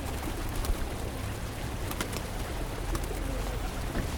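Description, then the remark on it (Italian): Pigeons in Rome coo softly over a steady, noisy outdoor background, with a few faint flutters and clicks scattered through the scene and no voices. “Les Pigeons de Rome”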